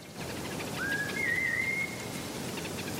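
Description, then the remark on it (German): A single clear human whistle rises and holds a steady high tone for about a second over a soft, hissy outdoor background: a whistle call used by the Hadza people of Tanzania to summon honeyguide birds. “Die Hadza, ein in Tansania lebendes Naturvolk, rufen die Tiere mit Pfeiftönen zu sich.”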